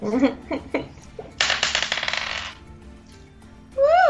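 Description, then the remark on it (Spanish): Dice clatter and rattle rapidly for about a second as a player rolls again in a game, a bright, dense burst of small hard knocks; the roll comes up 17. Short vocal sounds come just before it, and a voice rises in pitch at the end. “tira otra vez, por favor.”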